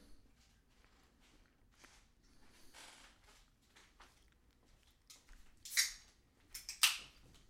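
A can of sparkling water is cracked open near the end, with two sharp, fizzy bursts of hiss following a stretch of quiet, soft handling noise.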